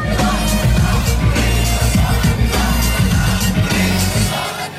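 A loud, booming protest rap song with heavy rhythmic bass blasts over distorted giant loudspeakers on trucks at a protest in the center of Beirut, Lebanon, mixed with the roar and shouting of a large crowd, dense and continuous throughout.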